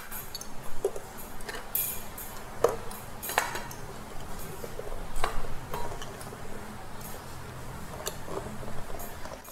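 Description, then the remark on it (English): Six eggs being lowered gently one by one into a pot of boiling water, with several sharp clinks of spoon and shell against metal over a steady bubbling hiss. “Um, and I'm gonna drop these eggs into the water.”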